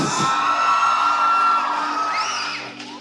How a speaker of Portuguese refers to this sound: Só os velhos estão gritando para ela, né?